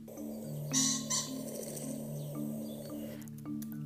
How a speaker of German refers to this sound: Vorbei geht's an Pferdekoppeln und ab und zu hört man auch Fasane rufen. äh, die klingen wie so eine alte Autohupe, finde ich. Äh, Moment, ich spiele mal kurz ein zu, damit ihr wisst, was ich meine.